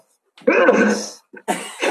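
A loud sneeze, a voiced, drawn-out build-up breaking into a hissy burst, followed by a brief catch and a second noisy, breathy burst. No talking.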